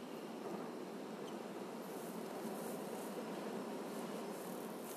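A steady, low roar of ocean surf washing against the shore, constant, with no distinct individual wave crashes and no voices.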